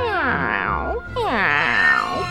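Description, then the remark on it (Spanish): Two long, wailing meows of a wildcat, one right after the other, loud, each rising and falling in pitch, with no talking alongside. “Un gato salvaje maulla y maulla”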